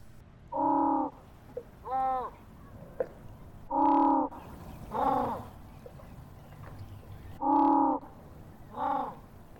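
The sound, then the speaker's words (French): Harsh, braying penguin calls, played back through a loudspeaker to penguins, come in three pairs of loud squawks, each a second or so long, repeating at a steady spacing over a quiet background with no talking. “on diffuse un cri de manchot et ils nous prennent pour des manchots”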